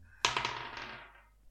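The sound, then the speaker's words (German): A sharp clatter of dice rolled onto a surface, followed by a quick series of rattling bounces that taper off over about a second, with no talking; the roll comes up 12. “ich doch jetzt äh, würfeln und das letzte Thema einleiten.”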